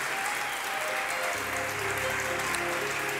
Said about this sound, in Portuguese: Pode aplaudir o Senhor.